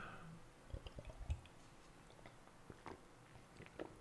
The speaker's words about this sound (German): Ich muss mal kurz einen Schluck trinken.